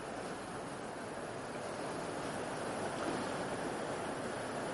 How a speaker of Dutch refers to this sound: ik hoop dat ik nog hoorbaar ben, want het regent nu hard.